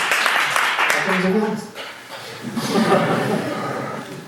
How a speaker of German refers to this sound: Dann passiert sowas. Applaus